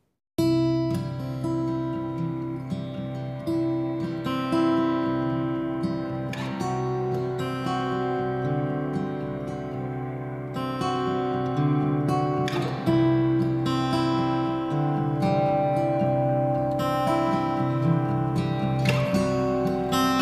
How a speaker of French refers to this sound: voici ma chanson inspirée de Rita Godette Gravel, résidente de Saint-Alphonse-Rodriguez